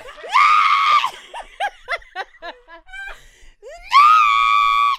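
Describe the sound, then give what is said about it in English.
A singer's loud, shrill belted high note, an attempt at a note never hit before, screeched like a cat's yowl, followed by bursts of giggling laughter, then a second piercing, sustained high scream, strained. “It was literally a cat scream.”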